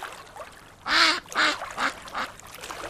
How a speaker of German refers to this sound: Eine Ente, eine mechanische Ente, um genau zu sein. Die konnte schnattern, laufen, mit den Flügeln schlagen, fressen.